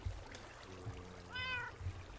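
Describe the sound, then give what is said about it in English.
A single drawn-out cat meow, rising in pitch near the end, over a low, steady background rumble. No one speaks. “All right, cat. Cat, you're up.”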